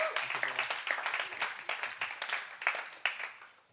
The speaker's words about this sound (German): Ich glaube, das ist ein Applaus für unsere wunderbaren Interviewgäste.